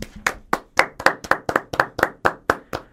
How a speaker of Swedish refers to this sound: En applåd!